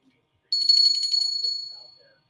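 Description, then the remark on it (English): A small souvenir bell rings out brightly, shaken with a quick fluttering rattle for about a second before its high, clear tone fades away. It sounds alone, without talk. “So I want to tell you a funny, funny story about this particular bell I've had since forever, since a little child.”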